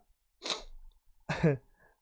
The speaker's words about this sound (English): So we have a cough and a sneeze there.